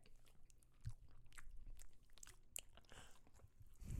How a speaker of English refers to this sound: Everyone just listening to us eat cookies. ASMR break.